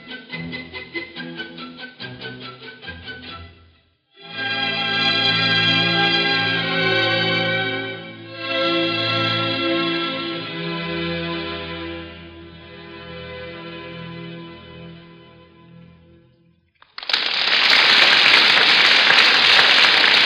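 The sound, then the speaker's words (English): A simple homemade rain song by a child aged six to seven: sustained, buzzy electronic tones shifting through a few notes, ending in a loud, steady hiss like heavy rain. No one speaks. “next is a rain song. It's by someone between the age of six and seven.”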